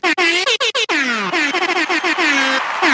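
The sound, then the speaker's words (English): A blaring air horn sound effect, with a few sharp stuttering blasts followed by a long, loud, continuous honk of about five seconds that dips in pitch, harsh. “And let's get him the the one air horn that just goes off for like five seconds”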